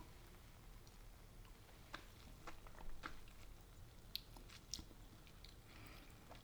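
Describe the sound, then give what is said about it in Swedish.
Quiet mouth sounds of someone tasting a drink paired with ice cream: a few soft wet clicks and lip smacks scattered over several seconds, with no talking. “Okej, jag måste nog ta en till klunk för glassen sitter kvar.”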